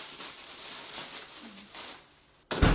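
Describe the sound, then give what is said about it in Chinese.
A door closes with a single sudden thud near the end, heavy and loud, as a mother and daughter shut it behind them and leave the home, after a few seconds of faint, quiet background hiss with no talking. “母女俩关门出去之后，屋里一下就安静了。”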